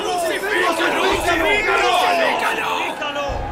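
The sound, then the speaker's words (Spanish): An angry mob roars and shouts, many voices overlapping into a loud, continuous din that stays intense throughout without any pause. “Pero la turba rugió aún más fuerte.”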